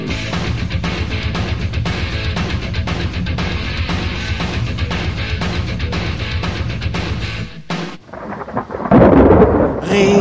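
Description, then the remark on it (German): Heavy rain pours down in a dense, steady roar while deep thunder rumbles underneath, briefly dropping away before a loud crash of thunder near the end. “Regen, Regen, Regen.”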